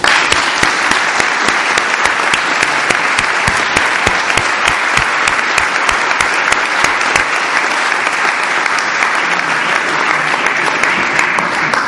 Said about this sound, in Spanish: Yo pido un aplauso por el profesor Ventué.